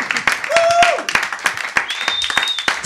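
An audience applauding a band after their live performance at the Salon Secret broadcast on Ram Radio, a dense patter of many hands clapping at once, with a couple of sharp whistles rising above the applause.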